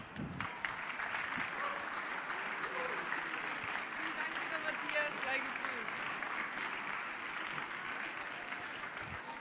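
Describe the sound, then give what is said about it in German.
A crowd at a trade fair applauds steadily throughout as an assistant is welcomed onto the stage, a dense, even wash of clapping with no breaks. Faint voices murmur underneath the sustained ovation. “Und als charmante Assistentin begrüße ich unter anderem aus diesem Anlass bei mir auf der Bühne wieder mit einem tosenden Applaus natürlich des bereitwillig assistierenden Publikums”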